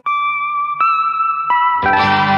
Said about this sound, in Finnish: kuunnellaan tähän väliin kappale ….